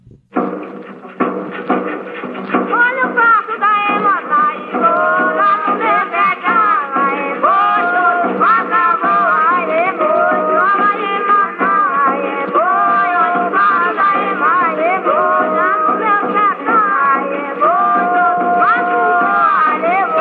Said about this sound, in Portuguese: Outras manifestações musicais que os pesquisadores gravaram em Recife foram o Bumba Meu Boi e o Xangô. Vamos ouvir o Bumba Meu Boi, toada do Passo da Ema.